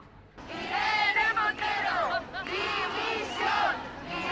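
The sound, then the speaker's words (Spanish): A crowd of protesters in a minority 8 March march along Calle Atocha in Madrid shouts against Equality Minister Irene Montero, a loud, continuous roar of many raised voices rising and falling in waves, with chant-like surges and no single voice standing out. “Gritos en contra de la ministra de Igualdad en la manifestación minoritaria que a esta hora recorre la calle Atocha”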